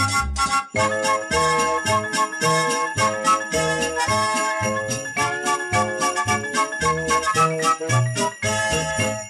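A lively, bouncy song with steady rhythmic beats and bright jingling sleigh bells shimmering over the melody, loud and continuous throughout without any voices.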